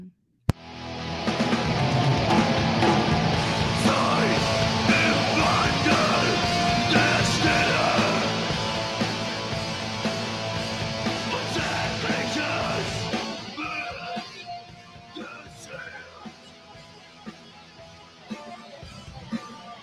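A loud rock song with dense, driving guitar and shouted, strained vocals plays for about twelve seconds, then thins out into a quieter, sparser stretch until the end.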